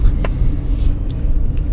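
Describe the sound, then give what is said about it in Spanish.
A steady low engine rumble and road noise from inside a moving car driving to an orchestra rehearsal in Asunción, continuous and fairly loud, with a few faint brief clicks or rattles and no talking. “Te doy la bienvenida a este podcast aquí desde mi auto yendo al ensayo de la Orquesta Sinfónica de la Ciudad de Asunción.”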